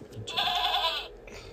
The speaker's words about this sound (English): Can you find the goat? Goat.